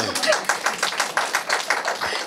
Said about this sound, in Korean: 박수 한번 주세요, 여기.